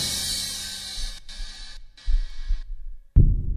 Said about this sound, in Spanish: Tanto la obsesión por la imagen propia como la obsesión por el sonido del propio corazón, conducen a un mismo ensimismamiento, a la vida aislada.